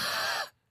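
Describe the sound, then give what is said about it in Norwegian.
A raspy, clucking throat noise from a person, recorded in a record studio, rasps for about half a second, breaks off into a brief silence, then returns as a short, sharp burst. “Er det et radiobegrep som heter liksom høne i halsen?”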